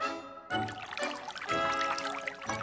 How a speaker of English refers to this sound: Come and look at this, guys! We are now going to pour water into the tank.